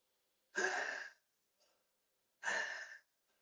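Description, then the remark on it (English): Deliberate Wim Hof power breathing technique: two loud, forceful, engaged inhalations about two seconds apart, with a brief, much softer exhale in between, with no talking. “So this is known as the Wim Hof breath.”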